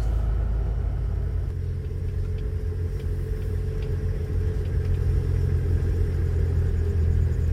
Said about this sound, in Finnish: mun auto on varmaan myös vanhentunut, koska ennen se on noussut tätä mäkeä kotiin ihan kepeästi. Nyt tuntuu vähän kankeelta. Pitää laittaa pienempi vaihde nopeammin. Moi autoparka.